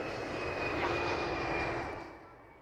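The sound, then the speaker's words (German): A loud jet airplane roars at the edge of the runway at Hamburg Airport during the G20 summit, its broad engine rumble paired with a steady high whine, then begins to fade as it passes. No one speaks. “Auch am Hamburger Flughafen ist heute Großkampftag. Hunderte sogenannte Planespotter sind angereist. Am Rande der Landebahn geht es nur um eins.”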